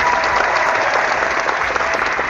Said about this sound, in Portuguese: Uma salva de palmas para Reinaldo Shein.